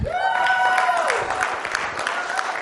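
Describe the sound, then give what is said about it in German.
An audience applauds the technical team, breaking into dense, steady applause that holds at a fairly loud level throughout, with a brief, high, sliding cheer or whoop rising over the clapping at the start. “Einen Applaus fürs Technikteam.”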